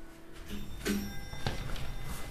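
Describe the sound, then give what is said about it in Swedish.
A doorbell rings at an apartment door in a high-rise building, a steady electronic tone held for a couple of seconds, fairly quiet, with a few soft knocks and shuffling sounds. “Så jag promenerar in i ett höghus och ringer på hos mitt första besök.”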